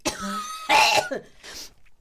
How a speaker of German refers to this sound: Achtung, ich werde super laut husten.